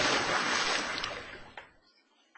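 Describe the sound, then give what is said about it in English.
A loud splash as a penguin jumps into a bathtub of cold water: a burst of bright, hissing water noise that washes out and fades over about two seconds, with a few small drips and sloshes trailing off. “小企鹅决定试试看深呼吸，然后数着一、二、三，splash。”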